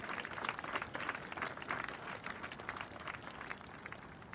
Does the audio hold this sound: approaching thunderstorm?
no